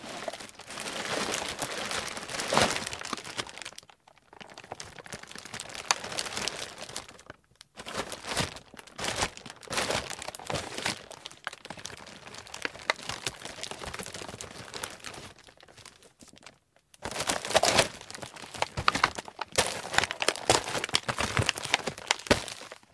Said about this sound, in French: le sac en plastique. Un objet que nous manipulons, malheureusement pour la planète, un peu tous les jours. Bien qu'il soit à l'origine d'un désastre écologique, donnons-lui aujourd'hui le statut d'un incomparable objet sonore.